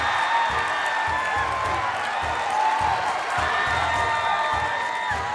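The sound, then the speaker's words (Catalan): A live show audience applauds the two winning contestants steadily with dense, continuous clapping, joined by cheers and a few high whoops rising above the noise, all at a loud, sustained level for several seconds. “Un aplaudiment”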